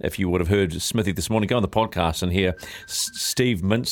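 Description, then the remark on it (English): A phone buzzes against a hard desk surface, a rasping vibration that comes through underneath steady talking and stands out briefly in a short pause. “That's my phone going off.”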